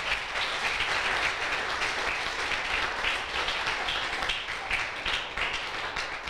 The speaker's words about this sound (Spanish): ¿Cuántos les pueden dar un aplauso al Señor?